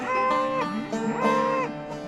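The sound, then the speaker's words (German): Bulls bellowing and lowing in overlapping calls, several drawn-out moos rising and falling in pitch, steady throughout, with no voices, as they are driven on horseback on a ranch near Sweetwater, West Texas, the herd grazing under wind turbines. “Auf der Brooks Ranch treiben sie die Bullen so wie immer schon, mit dem Pferd.”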